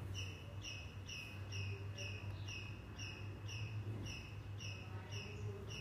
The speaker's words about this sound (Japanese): なんかこの鳥はなんか私のハートのさえずりを代弁してくれてるかのようで瞑想してる時に鳥がこんな風に鳴くことっていうのが結構あるんだけれど